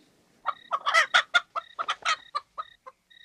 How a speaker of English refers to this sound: Chickens take the bus. As a matter of fact, there was a chicken on the bus.